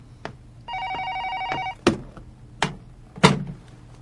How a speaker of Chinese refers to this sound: 不好意思，我先接个电话。